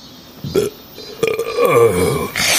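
A loud, drawn-out burp rumbles close by, starting with a short gulp and stretching into a long, croaky belch that trails off, with no one talking.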